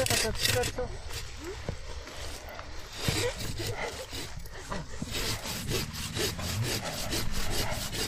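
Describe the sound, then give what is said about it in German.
A hand saw rasps steadily through a tree trunk in rhythmic back-and-forth strokes, carrying on throughout as the tree begins to wobble, with voices murmuring faintly underneath. “Man hört es schon, dass ja. er weniger wird. Er wackelt auch schon ein bisschen.”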